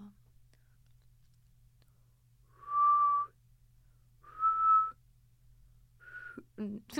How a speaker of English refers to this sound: Oh, let's see if I can whistle.